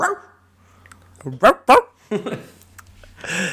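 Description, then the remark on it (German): A person imitates a dog barking with two quick 'woof' sounds, surrounded by brief bits of talking. “Hundi macht. Wow, wow.”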